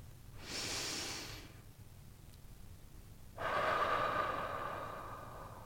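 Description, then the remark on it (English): A single deep breath: a long, airy inhale, a brief pause, then a fuller, steady exhale that trails off slowly. No one speaks. “As we arrive together in circle, I invite you to join me in taking a breath.”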